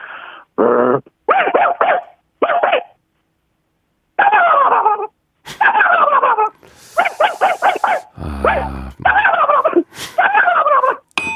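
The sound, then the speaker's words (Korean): A person vocally imitates a turkey fighting with the dog from the house across the street: rapid gobbling warbles in quick bursts alternate with yelps, whines and harsh barking sounds, loud, with brief pauses between flurries. “칠면조랑 앞집 강아지랑 싸우는 소리.”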